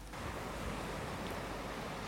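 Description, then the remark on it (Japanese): A steady, full wash of surf rolls continuously, like waves breaking along the shoreline of the Enshū-nada coast in the evening, with no voices and no distinct individual crashes standing out. “こうして青年と小さな男の子は夕刻には遠州灘の海岸沿いに来ていた。”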